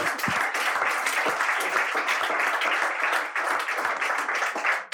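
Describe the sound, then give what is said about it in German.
Steady audience applause for a correct quiz answer about Werder Bremen's top scorers fills the whole five seconds, a dense crackle of many hands clapping at an even, fairly loud level with no voices standing out. “Ailton natürlich. Äh, Applaus dafür.”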